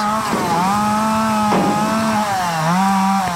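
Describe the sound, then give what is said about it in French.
A chainsaw cutting wood for barricades roars loud, its engine holding a steady buzzing whine that sags in pitch a few times as it bites into wood; no voices are heard. “J'ai fait des barricades avec euh, des tronçonneuses.”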